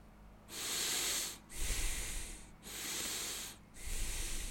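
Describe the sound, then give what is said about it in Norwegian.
A person demonstrates into a microphone how breathing speeds up and loses its pauses when overstimulated: four quick, loud in-and-out breaths, each about a second long, following one another with no pause between them, airy and hissing. “Så, du så akkurat som om eh, Skal jeg puste inn i mikrofonen? det er som om pusten vår går sånn.”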